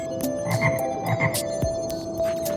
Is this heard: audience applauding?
no